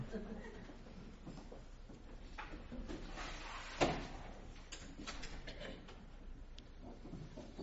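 A door shuts with a single short thud partway through, set against a steady hum of room noise and faint murmuring voices.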